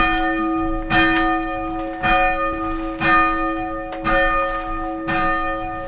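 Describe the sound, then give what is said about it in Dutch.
A church bell of the Reformed church (Hervormde kerk) in Silaarshoek, now rung electronically, rings steadily, striking about once a second, each clang leaving a rich, humming tone that hangs between strikes. The bell sounds clear, with no voices. “Je hoorde de koster en de klok van de hervormde kerk in Silaarshoek.”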